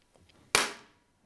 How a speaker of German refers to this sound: Nein, ich wollte nur einmal klatschen, damit ich alle Spuren synchronisieren kann und so.